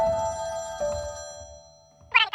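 A telephone rings at home with a bright electronic ringtone: two sustained melodic rings, a brief lull, then a sharper burst as the next ring begins. Clear, with no voices.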